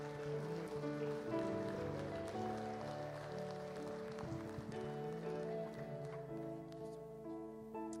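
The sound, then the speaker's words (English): An audience claps hands in praise, a steady dense patter of many hands that lasts the whole stretch, with sustained keyboard or organ chords ringing underneath. “Come on and give the Lord a hand clap of praise one more time.”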